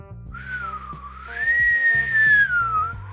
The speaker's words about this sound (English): Can you hear that? I tried to whistle. I used to be better at whistling, but I'm a, uh, I'm a little parched right now.